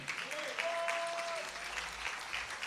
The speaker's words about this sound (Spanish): Dele el aplauso fuerte al Señor.